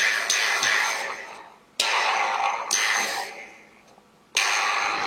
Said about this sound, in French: C'est pas du kalimba, c'est juste un mec qui joue avec des aimants. Il les dispose en rond pour qu'ils interagissent en fonction de leur attraction-répulsion, et c'est assez hypnotisant.